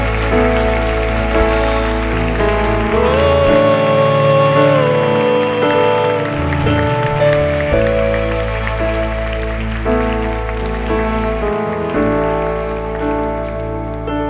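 Steady crowd applause, a dense patter of many hands clapping, runs under sustained organ-like chords for the whole stretch, with no voices heard.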